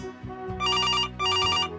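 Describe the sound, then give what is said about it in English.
A telephone bell rings in two loud, clear bursts with a brief pause between them, its bright metallic trill standing out over a low background hum. No one speaks. “Teresa appears in the doorway and announces that Signorino Michael is wanted on the phone.”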